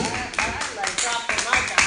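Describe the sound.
An audience applauds with steady, overlapping claps forming a dense, crackling wash, with sharper bursts surging every few moments and voices mixed in beneath.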